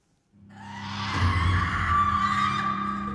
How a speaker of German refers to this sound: Ein mächtiger Sound und heftige Schreie empfangen das einströmende Publikum, das sich frei im Raum bewegen kann, in dem verschiedene Stationen aufgebaut sind.